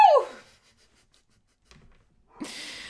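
A dog named Grog barks twice, a sharp yelping bark at the start and another rougher bark near the end, with a short quiet gap between. No one speaks.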